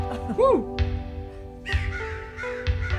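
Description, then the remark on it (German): A crow caws harshly several times, the raspy calls repeating roughly once a second, with a rising-falling cry near the start and a steady low hum underneath. “Das ist die Krähe, die Krähe.”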